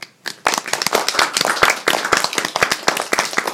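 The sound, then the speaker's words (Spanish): An audience at the Juntitos por un Planeta Mejor event breaks into applause for themselves, a dense stream of sharp, overlapping hand claps that starts abruptly and stays steady and fairly loud throughout, with no talking over it. “¿Nos podemos regalar un aplauso, por favor?”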